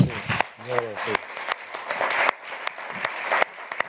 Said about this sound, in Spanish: Ah, yo creo que merece un aplauso.